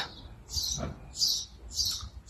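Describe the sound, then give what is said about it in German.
Birds chirp softly outdoors, a few high, brief bursts repeating about every half second over a quiet, faintly rumbling background, with no one speaking. “Vögel, die zwitschern, der Flügelschlag von Tauben.”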